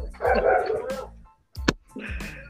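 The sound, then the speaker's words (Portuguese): A dog barks loudly in a few rough, drawn-out bursts, with a brief pause and a sharp yelp between them. “É um cachorro, é um canudo, é um carro. É é o pancadão. Tá Misericórdia. Cachorro aí.”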